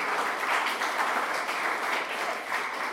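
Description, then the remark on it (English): A crowd applauds Noah Rivas steadily, a dense wash of many hands clapping at an even, fairly loud level for a few seconds, with no voices standing out. “Give it a nice round of applause for Noah Rivas.”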